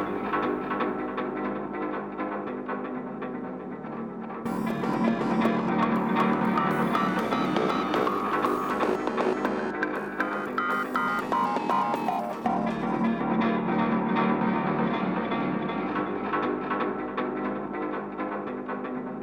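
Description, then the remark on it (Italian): A dense, continuous music track plays with no voices, its texture shifting abruptly between sections as different songs are spliced together into a mashup remix made from a home recording by a band before they took that name, fuller and brighter in the middle stretch. “cosa che state ascoltando è una delle zozzerie che faccio quando non ho niente da fare, cioè un eh, mashup, un remix, chiamatelo come vi pare, di una traccia che era una registrazione casalinga”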